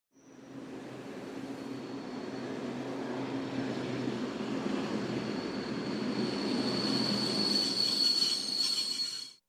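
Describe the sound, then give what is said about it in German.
A train rumbles along steadily while a high, sustained metallic squeal from its wheels rises and grows louder toward the end, with no voices present. “Es geht los. Urlaub, volle Züge”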